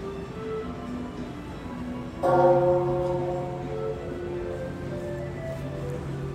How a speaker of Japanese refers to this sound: 鐘が鳴りましたそろそろ始まる時間でしょうか